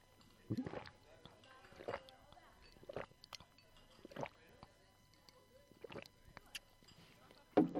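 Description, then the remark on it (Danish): Soft, wet slurping sips of wine, around seven short bursts spaced roughly a second apart, with faint mouth noises between them and a slightly louder slurp at the very end. “Og så tage en slurk.”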